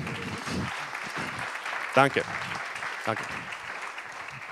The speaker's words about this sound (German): Wollen wir Applaus geben denen? Ja?